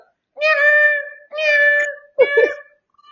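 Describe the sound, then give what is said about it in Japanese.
A cat meows three times in quick succession, loud, the first two drawn-out cries followed by a shorter, rougher one, with no talking. “おちょ、猫来た。”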